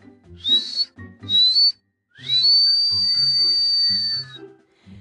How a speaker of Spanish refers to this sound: Luego volvió a tocar su silbato. Cuatro veces seguidas.